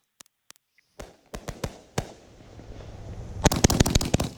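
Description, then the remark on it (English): A 25-shot firework cake fires a rapid series of sharp launch thumps, first spaced out then clustering into a dense crackling flurry of bursts, loud with no voices. “We got the the footage at the base of the of the firework, and then we also got the the sky.”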